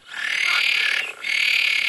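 Green frogs croak loudly in a dense, continuous chorus with a harsh, buzzing quality, broken by one brief lull before the racket swells again. No one speaks.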